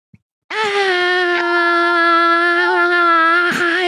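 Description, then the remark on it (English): A man's loud, sustained screamed heavy metal vocal held on one steady pitch for over three seconds, forceful, after a brief click at the start, with no talking. “This dude's screaming at the top of his lungs, and that's all that's coming out.”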